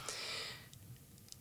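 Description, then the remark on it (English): A person voices a short, breathy exasperated huff, imitating a rock climber pretending something is wrong with the rock or that they misread a move, a sharp exhale lasting about half a second, followed by a few faint clicks and rustles. Fairly quiet, with no talking. “Now that that's the sound of someone pretending like there's something a little bit wrong with the rock, or like they've misread a move.”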